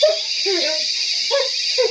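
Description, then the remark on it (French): A barking monkey yelps in several short, rising cries, with brief pauses between calls over a steady background hiss. “Courageux mais pas téméraire, le singe aboyeur, hein”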